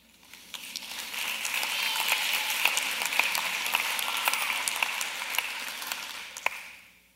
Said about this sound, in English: This is a good place for you to clap.